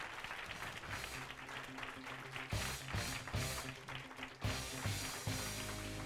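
An audience breaks into steady applause, many hands clapping in a dense, continuous patter with a few louder surges, sustained throughout without any talking.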